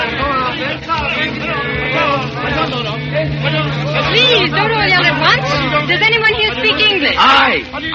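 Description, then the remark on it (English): A busy crowd hubbub of many overlapping voices chattering at once in a crowded little town swarming with soldiers, correspondents, thieves and spies, steady and fairly loud, with a low engine-like hum running underneath throughout. “The crowded, sweaty little town swarms with soldiers, correspondents, thieves, and spies.”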